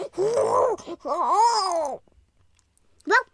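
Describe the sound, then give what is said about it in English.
A person's voice imitates the cry of a prehistoric carnivorous mammal, a triconodont: two drawn-out, wavering growl-like calls, a brief pause, then one short sharp yelp. “I think Volcano mammoth sounds like this.”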